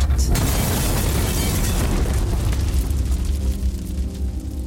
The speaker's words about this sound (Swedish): En man kliver in genom entrédörren till Studio 1 och börjar hälla någon vätska omkring sig. Han säger ingenting, tittar inte på någon. Sen tar han upp en tändare. 30 sekunder senare exploderar Studio 1.